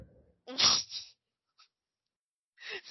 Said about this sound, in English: Oh, that barking? Yeah, yeah.